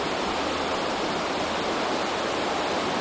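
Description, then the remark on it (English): A steady, dense roar of rushing water like a waterfall, continuous and unchanging for the whole stretch, fairly loud with no voices. “mm hmm gets louder and louder. Yeah. Until it sounds like a waterfall.”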